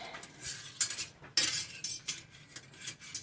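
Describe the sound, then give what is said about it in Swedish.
A metal utensil scrapes and clinks against a pot in a steady stirring rhythm as chocolate melts in it, fairly quiet, with a few sharper scraping strokes and no talking. “ska jag bara kolla så vi inte bränner fast det här.”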